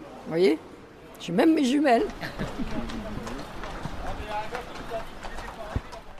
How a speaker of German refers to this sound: haben zwei Jockeys mit ihren Trabern auf der ovalen Sandbahn eine Trainingsrunde absolviert. Seit 1894 ist das Hippodrom von Argenton in Betrieb.